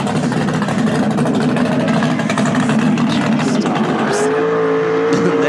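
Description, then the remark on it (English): A big-block 454 V8 engine idles with a deep, steady, loping rumble, then its pitch climbs briefly as the revs rise near the end. “hit the 454 purring. Get it purring.”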